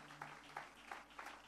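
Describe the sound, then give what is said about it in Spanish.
An audience applauding together in loud praise to the Lord, a steady wash of clapping with regular louder beats about three times a second, fairly quiet overall, with a low steady hum underneath. “Todos juntos, un aplauso fuerte de alabanza al Señor.”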